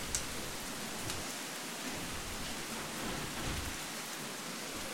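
Heavy Amazon rain falls steadily and evenly across the whole stretch, a dense hiss of drops on leaves and surfaces with a faint low rumble underneath and no voices.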